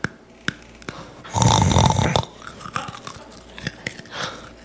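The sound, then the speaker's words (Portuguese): A dog eats a banana close to the microphone: crisp, crunchy bites and wet mouth clicks, irregular and loud, swelling into a dense stretch of crunching before returning to scattered chomps. No talking. “Mastigando aqui, ó. Bota perto do microfone sua boquinha linda.”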